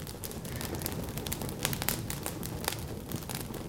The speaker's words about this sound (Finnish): Juha laittoi hienon nuotiotehosteen tässä pihkapaukut soi ja Tunnelma on ihan täydellinen.